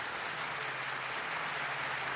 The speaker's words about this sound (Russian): Э, это раз вы там хлопаете, давайте, давайте, давайте, давайте, давайте похлопаем.